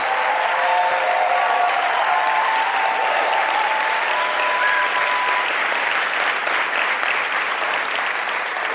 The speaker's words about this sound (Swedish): Så jag tycker vi ger våra kära pastorer och pastorsfamiljen en stor applåd. Amen.